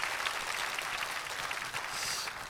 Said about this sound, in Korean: 우리 수고하신 우리 사부성가대 한편 힘찬 감사의 박수 드리겠습니다.